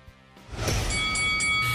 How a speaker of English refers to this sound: Andrew, ring the bell.